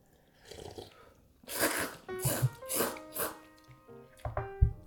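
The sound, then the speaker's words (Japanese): Someone eating Super Cup instant cup ramen noodles: a quiet start, then a run of loud, breathy slurps and chewing bursts in an uneven rhythm, with no talking. “じゃあ麺いってきます”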